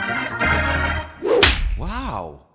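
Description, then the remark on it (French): A single sharp, loud slap sound effect cracks out midway, set between bright, sustained tonal effects, with a quick rising-and-falling cartoonish tone right after the hit. “Et même pas mal.”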